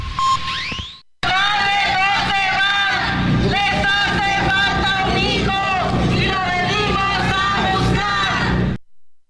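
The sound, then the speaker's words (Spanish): A crowd of protesting mothers, the searching mothers, shouts and chants loudly and continuously at the National Palace, their overlapping voices rising and falling together for several seconds outdoors, after a brief tone at the very start. “Estos gritos que usted escucha son parte de las madres, las madres buscadoras que hoy acudieron a Palacio Nacional”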